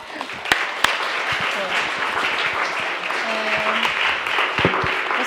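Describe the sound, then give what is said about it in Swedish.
Steady audience applause fills the whole stretch, a dense wash of many hands clapping with a few sharper individual claps standing out and faint murmurs underneath, as an audience thanks a guest speaker leaving the stage. “Så vi tackar dig … med en applåd.”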